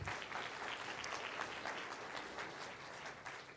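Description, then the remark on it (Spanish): A church audience applauds loudly for the Lord for several seconds, a dense, continuous patter of many hands clapping at once, fairly loud, without any talking over it. “Un aplauso fuerte, Señor. Hazlo fuerte, Señor.”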